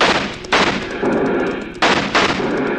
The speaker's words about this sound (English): I got one of them, but he's sticking on his horse. Hold your fire.